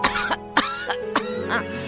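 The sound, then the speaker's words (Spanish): A voice coughs loudly in a quick series of harsh, forceful bursts, imitating a whale's powerful cough. “toser, toser muy fuerte.”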